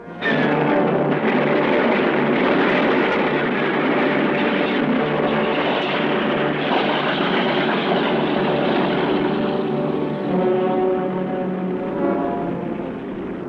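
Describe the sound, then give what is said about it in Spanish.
A propeller airplane engine runs steadily and loudly, a continuous droning roar with a rhythmic throb that holds for the whole stretch before easing slightly at the end. “Dense prisa, van a perder el avión.”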